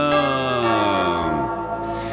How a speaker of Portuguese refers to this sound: Filhos queridos, é terça-feira, é Jesus das Santas Chagas, toca o sino sacristão.